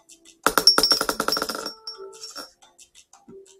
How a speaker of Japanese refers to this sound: じゃあサイコロの目で、うん、1回ね